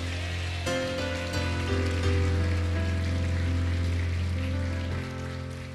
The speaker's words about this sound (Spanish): Alguien dice amén y le da un aplauso al Señor.